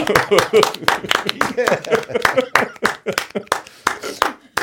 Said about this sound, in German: Applaus.